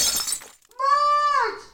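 A woman smashes a window pane in a brief, bright burst of breaking glass, then after a short pause shouts outside in a loud, drawn-out cry.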